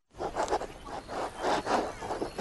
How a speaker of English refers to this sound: Hear that? The sound of your antique fountain pen gliding across linen paper as you journal in the park.